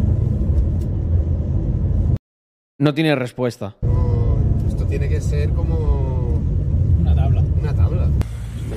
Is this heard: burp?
no